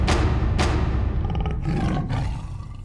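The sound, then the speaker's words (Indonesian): A tiger's roar rumbles loudly, a deep sustained growl with a couple of sharp bursts at the start, filling the whole moment with no voices. “Pada saat itu muncullah macan yang ia cari-cari.”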